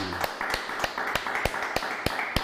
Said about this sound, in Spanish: Aplausos enormes al Eterno.